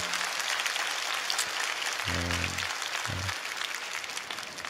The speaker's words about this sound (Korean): 오늘 나를 이 자리까지 인도하시고 또 나에게 기도와 예배를 선물로 주시는 우리 하나님 앞에 감사와 영광의 박수 올려드립니다.